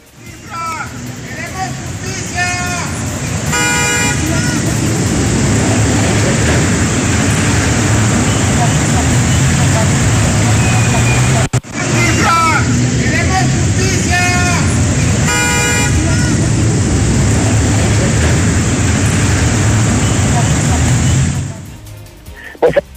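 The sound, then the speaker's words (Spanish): Dense, loud traffic noise in a traffic jam after protesters closed the avenue at Eren and López Mateos, car horns honking repeatedly in overlapping bursts, a steady roar of engines underneath, continuing for about twenty seconds before cutting off. “obviamente cerró el tráfico, fue un auténtico eh, caos vial, tuvo que llegar la policía municipal, tuvo que llegar tránsito también al lugar de los hechos”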